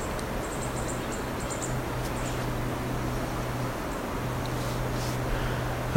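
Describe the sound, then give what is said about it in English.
Quick, thin high-pitched chips and twitters from two black-throated green warblers fighting, scattered in bursts over a steady hiss and a low droning hum. “Sounds like we have two green warblers fighting now.”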